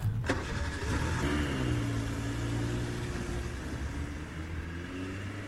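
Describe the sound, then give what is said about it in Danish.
A Volkswagen car engine cranks and catches with a sharp start, then settles into a steady low hum that rises in pitch as the car pulls away to drive to the airport, loud throughout with no talking. “Kom, træd ind i min Volkswagen, så kører vi sammen til lufthavnen.”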